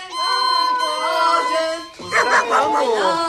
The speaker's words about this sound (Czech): To je Edův pejsek.